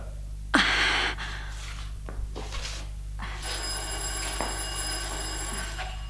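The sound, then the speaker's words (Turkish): A doorbell rings: a loud, harsh burst near the start, then a steady bright ringing tone that holds through the final seconds over a low electrical hum, with no one speaking. “Kapı çalıyor duymadın mı?”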